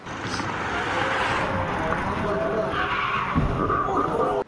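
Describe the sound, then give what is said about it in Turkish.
A speeding car's tires skid and brakes screech in a sustained, loud wail over a steady roar of traffic noise, with a thud-like burst near the end, as the car strikes a person crossing the road. “Önce fren sesini duydular ardından kazaya şahit oldular.”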